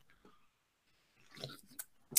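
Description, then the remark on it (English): Quiet slurping of hot coffee being sipped, a brief wet draw followed by a couple of sharp little clicks, with no one talking. “We had to sip on that.”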